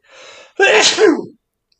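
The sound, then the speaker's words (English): A single loud sneeze: a short breathy inhale builds up, then a sharp, forceful burst that trails off quickly into silence. “Oh, yeah, I, th- I, think half my soul flew out on that one.”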